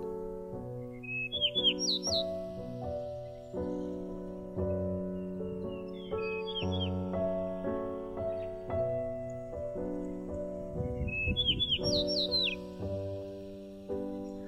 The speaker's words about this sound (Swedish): En gyllensparv satt på stolpar vid draven och sjöng ut sina stigande och sjunkande toner i en skön melodi.